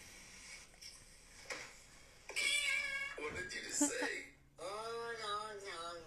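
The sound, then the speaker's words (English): A cat meows loudly, letting out a few long, wavering, drawn-out meows back to back after a couple of quieter seconds. “oh my god, that well, was like, like, Leslie Jordan and an orange tabby.”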